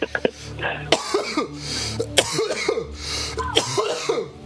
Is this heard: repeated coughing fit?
yes